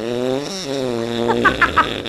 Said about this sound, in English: Why did it get so loud? Holy shit, what'd we do wrong? How come that fart was so loud?